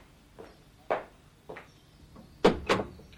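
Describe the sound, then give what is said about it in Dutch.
A car door opens with a series of mechanical clicks and thunks, ending in two louder knocks of the latch and handle. No one speaks. “Ik zal de deur voor u openen.”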